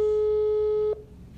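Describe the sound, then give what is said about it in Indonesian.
A steady, fairly loud electronic ringback tone hums for just under a second while a phone call is placed, then cuts off, leaving a faint background hiss. “Kita telepon guys.”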